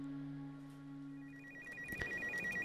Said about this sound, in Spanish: El teléfono sonó nuevamente.